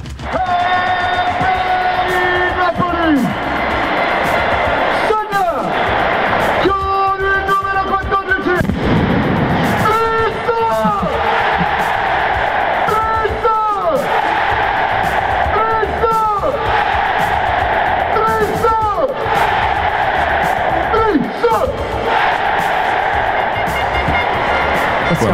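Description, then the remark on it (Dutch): A loud, dense crowd at Napoli's San Paolo stadium roars and chants continuously after a Dries Mertens goal, with rising and falling collective shouts and sharp bangs like firecrackers punctuating the noise throughout. “Mertens speelt sinds 2013 bij Napoli en bij elk doelpunt van hem in het San Paolo-stadion klinkt het zo.”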